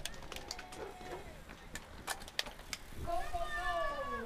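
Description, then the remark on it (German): Sharp mechanical clicks and ticks of bicycle gears shifting at the start of the second stage of a bicycle race, then a high, wavering squeal of brakes rising near the end, over a busy background murmur of voices. “Quietschen von Bremsen, Schalten.”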